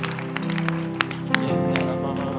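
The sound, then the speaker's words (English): An audience at a church service claps their hands, the claps loose and scattered rather than a steady beat, over a sustained musical drone and murmuring voices, with a reverberant sound. “Clap your hands.”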